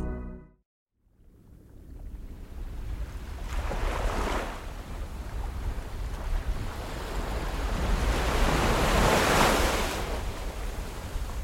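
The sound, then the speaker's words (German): Sea waves lap and wash around a small private yacht in the Aegean Sea near the Greek island of Hydra in mid-August 1997, with two broad swells of surf rising and falling over a steady bed of wind and water noise. No one speaks. “Mitte August 1997 im Ägäischen Meer nahe der griechischen Insel Hydra.”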